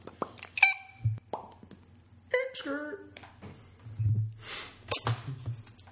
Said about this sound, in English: Let's have like a handshake, but it's gonna be kind of loud.